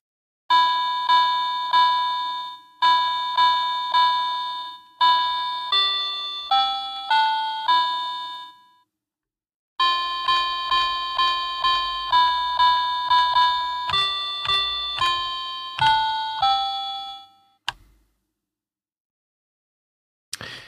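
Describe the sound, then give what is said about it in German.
A children's toy piano, played from a children's piano book, plays a simple melody in bright, bell-like notes, one phrase, a short pause, then the tune again, ending on a sustained tone. No voices. “konnte das Kinderpianobuch nämlich nicht so schnell zur Seite legen und hat nochmal in die Tasten gehauen.”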